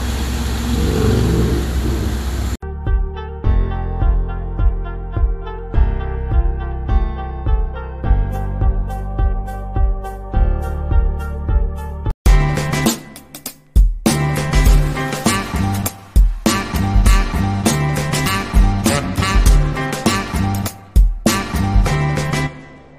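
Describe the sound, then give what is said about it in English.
A car engine roars loudly, climbing in pitch through several gear changes as it accelerates, then a dense, rumbling rush of noise takes over, heard from inside the car. Nobody speaks. “are now in the car.”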